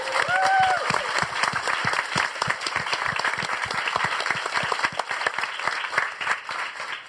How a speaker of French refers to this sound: Applaudissements pour Fibre Tigre.